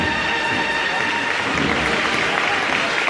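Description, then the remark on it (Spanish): Steady, dense applause from a large outdoor crowd, many holding open umbrellas, as a procession's paso de misterio passes the door of the parish of la Magdalena, many hands clapping at once in a continuous wash of sound with a faint murmur of voices underneath. “Esto está lleno de público, todo el mundo con los paraguas abiertos, algunos lo cierran para poder aplaudir.”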